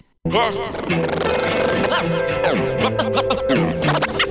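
A rap track opens loud and dense: a sustained synth tone under punchy beats, with sliding vocal-like samples and scratchy accents layered on top, all playing steadily after a brief moment of silence.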